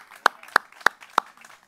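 Four sharp, evenly spaced hand claps at a steady beat, loud and crisp against a faint background hum, with no talking over them, as an audience claps for America on the 247th anniversary of the nation's birth.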